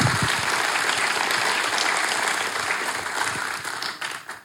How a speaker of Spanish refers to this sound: Un aplauso para ese papá. Bendito sea el Señor.